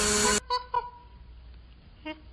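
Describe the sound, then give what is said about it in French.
A harsh, loud electronic buzzer blares for a moment, followed by a few short, horn-like tones spaced apart, as a machine signals a failed answer in an exercise that otherwise rewards with peanuts. “Au lieu de recevoir des arachides, il entendait le son de sa machine qui annonçait un échec.”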